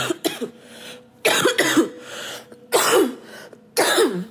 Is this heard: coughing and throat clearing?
yes